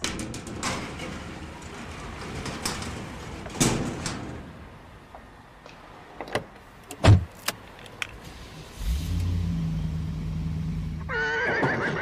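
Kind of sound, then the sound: animal, horse neighing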